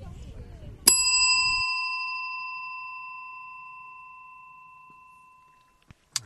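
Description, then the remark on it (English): A single bright chime of the Big Bell rings out once after a low rumble, heard from a car parked in a driveway on a sunny Monday, its clear tone sustaining and slowly fading over several seconds before another brief metallic strike at the end. “You heard it right, folks. That is the uh, Big Bell.”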